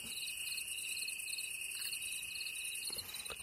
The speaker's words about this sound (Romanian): Și iată cum se aud greierii.